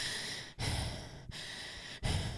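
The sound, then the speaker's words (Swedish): Loud deep breathing demonstrated by a person as if running the Göteborgsvarvet race with full lung capacity: heavy, airy inhales and exhales in a steady rhythm, about three breath cycles separated by brief pauses, with no talking. “så springer du Göteborgsvarvet och andas”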